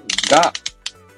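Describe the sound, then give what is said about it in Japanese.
Dry creaking and rustling of a book with sticky notes as its pages are flipped, a dense scraping burst followed by three short crisp page sounds, with no talking. “なんかギーギー言ってると思うんですけど、これ本の音です。はい。本をめくる音ですね。”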